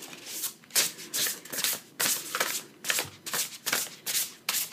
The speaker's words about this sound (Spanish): Vamos a comenzar entonces a barajar rápidamente las cartas.